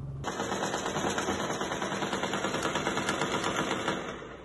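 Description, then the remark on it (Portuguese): A continuous stretch of rapid gunfire in the early hours of the night in communities of the west zone of Rio de Janeiro, Brazil, dense rattling shots running together for several seconds at a steady loudness, with no voices. “O silêncio da madrugada foi interrompido por tiros e bombas.”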